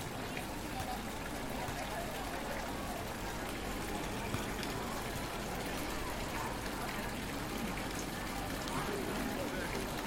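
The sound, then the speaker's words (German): A cast-iron fountain in the middle of a town square bubbles and splashes without pause, a steady, even rush of falling water, with a faint murmur of voices blended into the background. “Nur der gusseiserne Brunnen in der Mitte scheint übrig und sprudelt unaufhörlich, unbeirrt sein Wasser, unverrückbar, gleich wie das mächtig erhabene Münster.”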